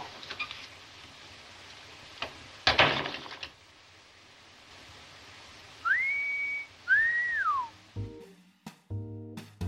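A person whistles two clear notes: a steady held tone, then a wavering one that slides downward. Crackly noise and a sharp crack come before, and brief musical tones follow.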